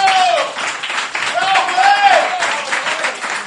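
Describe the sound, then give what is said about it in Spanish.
Steady applause from a crowd fills the whole stretch, dense and fairly loud, with a few voices and a rising whistle-like cheer cutting through the clapping. “Aplausos.”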